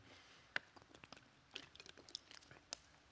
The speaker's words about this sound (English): Um, I'm just going to take a sip of water. Hold on.